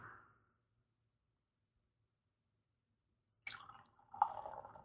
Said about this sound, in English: Oh, you are dripping everywhere. Yeah, I am dripping everywhere.